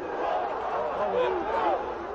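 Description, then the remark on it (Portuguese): Portuguesa football fans react with a sustained roar after Gilberto equalises 4-4 against Vasco in the 43rd minute of the second half, many voices shouting together, with individual yells rising and falling in pitch above the steady mass of noise throughout. “A torcida da portuguesa reage.”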